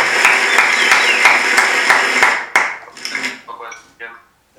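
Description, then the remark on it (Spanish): A crowd applauds loudly and steadily for a couple of seconds to welcome a speaker, with a few rhythmic sharper claps standing out, before the clapping thins out and a voice begins to speak. “Bueno, pues venga, vamos a darle un fuerte aplauso para, que empiece.”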